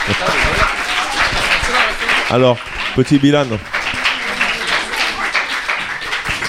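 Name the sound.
students applauding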